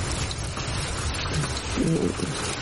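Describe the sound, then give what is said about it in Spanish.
Steady, dense rain pours down in a continuous hiss, fairly loud, with a faint low tonal murmur briefly surfacing near the end. “Esta eres tu. los ojos cerrados, bajo la lluvia.”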